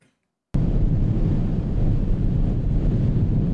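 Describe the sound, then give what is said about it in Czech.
After a brief silence, strong wind suddenly roars in and blows steadily, a loud, low rumbling rush buffeting the microphone without pause, on a morning of 12 below zero near Vítkov, on the eastern edge of the Nízký Jeseník, Czech Republic. No voices are heard. “Dopoledne tu je 12 pod nulou a v silném větru to působí ještě jako daleko horší zima”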